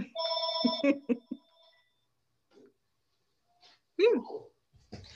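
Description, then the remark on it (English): The speaker's own phone, still plugged in, rings for about a second, a bright electronic trill under someone talking, then cuts off; after a pause a voice speaks again. “oh, sorry, I didn't know my phone was still plugged in.”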